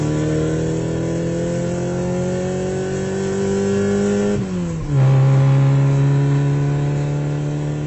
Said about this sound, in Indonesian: Mobil yang mereka tumpangi melaju dengan kencangnya.